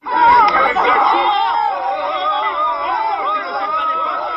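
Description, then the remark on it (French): A dense hubbub of many overlapping voices surrounds a centrist presidential candidate talking with young people in a neighbourhood of Strasbourg, France, loud throughout, with no single speaker standing out from the crowd. “Tu ne me fais pas les poches dans le brouhaha. On entend mal le candidat centriste, mais il vient bel et bien de coller une taloche à un jeune qu'il accuse de lui faire les poches.”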